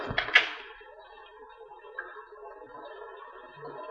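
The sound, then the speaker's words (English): A card slides under a door with a quick papery scrape and a light tap at the start, then a steady, quiet hum of background noise carries on with no one speaking. “What about the card? All right, here it is. Under the door.”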